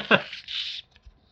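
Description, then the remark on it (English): A can of salted caramel Pepsi pops open with a sharp click, followed by a short burst of fizzing hiss that cuts off quickly, heard fairly clearly. “That's the sound of a soda being opened.”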